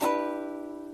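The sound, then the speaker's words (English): A single strum of a partial guitar chord, fingered a fret higher on the A string, rings out with a bright attack, then sustains and slowly fades over about a second, with no voices. “On the first string, A string, same string you used for the note C, or the chord C, except it's a fret higher, so it'll sound like this so far.”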